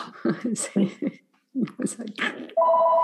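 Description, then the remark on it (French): People talk for a couple of seconds, then the speaker's mobile phone starts ringing, a loud steady electronic tone that continues to the end. “Mais, ah, mon téléphone. on s'excuse.”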